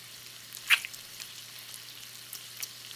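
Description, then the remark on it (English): Breakfast frying in a pan: a steady, quiet sizzle scattered with sharp crackles and pops, one louder pop standing out early on, with no talking. “I should have breakfast done in just a few minutes.”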